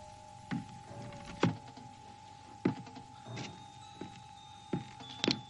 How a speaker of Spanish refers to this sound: Al oír unos golpes en la puerta, se ponen de pie.